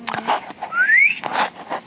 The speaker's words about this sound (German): Da ist echt ein Papagei, der hier immer lustige Melodien trällert.